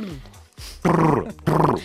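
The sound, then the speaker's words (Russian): A voice imitates the 'tpru' call used to stop a horse: two loud, buzzing, trilled vocal bursts separated by a brief pause, preceded by a short low murmur. “Скажи мне, а ты помнишь, вот как лошадь, вот ей, чтобы она остановилась, что лошади, э, так сказать, вот какой звук издавал?”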